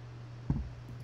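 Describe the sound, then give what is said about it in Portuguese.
A single quiet sip and swallow of water as the speaker drinks a gulp during a live stream, brief, heard alone over a steady low electrical hum with no one speaking. “Vou beber meu gole d'água enquanto você compartilha e chama a galera para essa live que agora vai bombar.”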